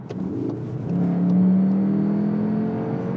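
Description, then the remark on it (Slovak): A Cupra car with a dual-clutch gearbox accelerates on kickdown in Cupra mode, its engine drone rising steadily in pitch into a strong, sustained whine that holds for a couple of seconds before easing slightly. No one speaks. “Takže ja to som len trochu ťukol do plynu, hej to akože...”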